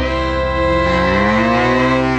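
A single long, loud cow moo fills the whole stretch, a sustained low bellow with rich harmonics that bends slightly in pitch as it draws out, unbroken.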